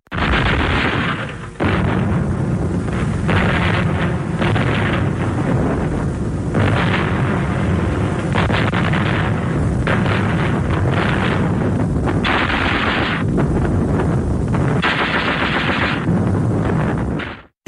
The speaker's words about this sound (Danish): Hør her, tysk flak. kanone. Det er den berømte og ret effektive tyske 88 mm flakkanon på Vestfronten i, i 40.